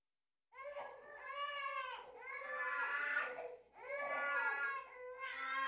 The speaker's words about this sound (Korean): 저 아래에서는 아이들 우는 소리가 났다. 19층에 사는 쌍둥이들 울음소리였다. 얼마나 크게 우는지 계단 바로 밑에서 우는 것 같았다.